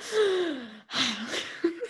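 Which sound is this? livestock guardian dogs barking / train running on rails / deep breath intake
deep breath intake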